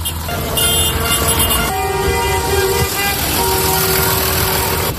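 A slow tractor with a reporter riding aboard drives through the village of Puebla de Sanabria, Zamora, Spain, blocking the village; its steady engine rumble is joined by loud, sustained horn toots that shift pitch several times, with a constant dense roar of noise throughout.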